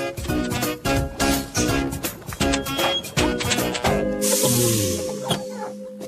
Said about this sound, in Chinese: 哦，我想可能是车子爆胎了。